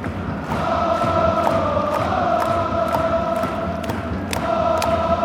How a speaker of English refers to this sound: But you're getting some proper full board J League, classic popcorn singing, classic popcorn jumping.